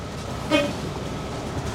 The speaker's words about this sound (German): hat gerade gehupt für den Kollegen da hinten, den entgegenkommenden ah. Bus.